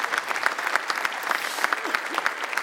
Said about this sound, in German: Ja, gerne nochmal einen Applaus dafür.